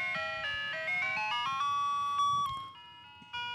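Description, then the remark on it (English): An ice cream truck's bell chime plays a bright, tinkling, old-school tune of stepped notes, steady and moderately loud over faint low background rumble, with no voices. “I heard the ding ding.”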